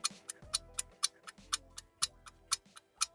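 clock ticking

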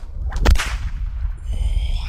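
whip crack sound effect

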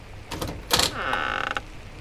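wooden door creaking open

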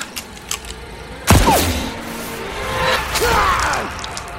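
gunshot

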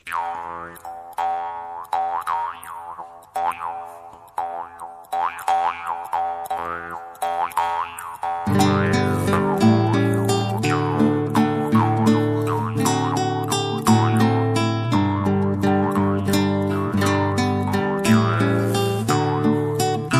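song played on air

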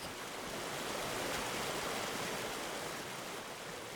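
creek water flowing

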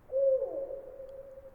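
owl hooting

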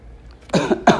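person coughing

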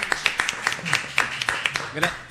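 loud applause

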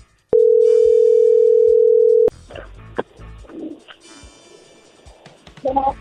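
telephone ringing tone

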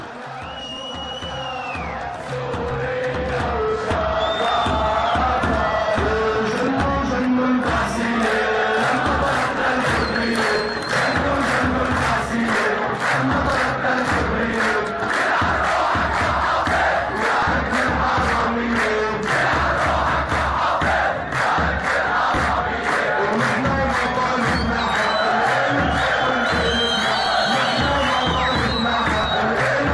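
crowd chanting

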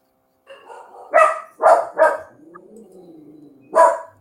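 dogs barking

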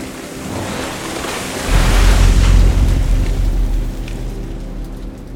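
heavy rain beating down

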